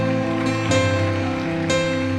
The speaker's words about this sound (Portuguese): Ah, pode aplaudir, irmãos.